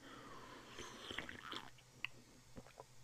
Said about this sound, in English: But yes, no, I do have a cough. I'm going to address that now because it might be persisting throughout. Let me actually get a nice gulp of water real quick.